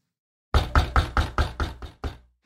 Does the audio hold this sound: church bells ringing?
no